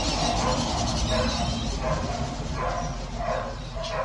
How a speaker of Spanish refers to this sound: Y a esta hora, como se habrán dado cuenta, hay como muchos perritos ladrando en el fondo. No son mis perros directamente, eh, pero es que hay gente haciendo ejercicio, corriendo por la calle entonces ellos obviamente cuando ven algo por ahí pasar